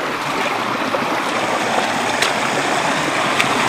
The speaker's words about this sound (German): Jesus konnte übers Wasser gehen, wir können durch das Wasser gehen, ganz nah am Toten Meer.